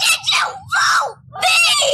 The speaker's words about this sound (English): Don't scream. Don't scream.